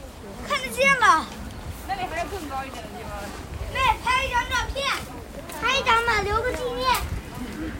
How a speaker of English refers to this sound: So we're about halfway up the hill here, and you can hear just then, there were some children with their grandmother coming up the hill, and they suddenly got very excited by the fact that you can see the Forbidden City so clearly.